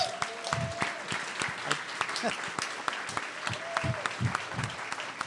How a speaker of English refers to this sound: Okay, I want to thank you all for coming, and uh, I'd like to hear a big round of applause for all our panelists and speakers.